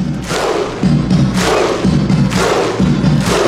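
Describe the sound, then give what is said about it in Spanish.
Thousands of Iceland football fans clap in unison, following their players clapping from the pitch after a match, with loud sharp bursts landing about once a second over a constant low roar of many voices. “imagen de miles de hinchas siguiendo al unísono las palmas de sus jugadores desde el césped pasó a la historia, algo jamás visto que traspasó fronteras y que coloca a Islandia como referente más allá de resultados”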